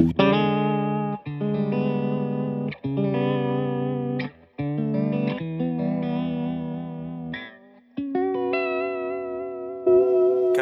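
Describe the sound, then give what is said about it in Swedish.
An electric guitar with two vibrato/tremolo effects stacked at once plays sustained chords and notes drenched in a wobbling, pulsing modulation, the tone warbling steadily as notes ring out loud with brief gaps between phrases. “Om man har dubbla vibratos, hur blir det då?”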